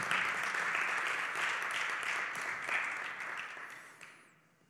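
A crowd applauds in a dense, steady wash of many hands clapping, holding strong for several seconds before tapering off toward the end.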